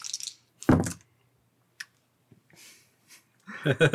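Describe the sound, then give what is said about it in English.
Twenty-sided dice clatter across a tabletop during a role-playing game saving throw rolled with disadvantage, in a few short bursts of rattling and clicking, with soft voices and a laugh coming in near the end. “ones and twos constantly with that those D twenties.”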